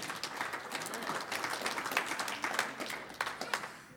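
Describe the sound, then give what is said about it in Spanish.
A church audience applauds the Lord during a sermon, many hands clapping in a dense, steady patter that holds for the whole stretch, with brief brighter bursts now and then and no voices above it. “Un aplauso al Señor.”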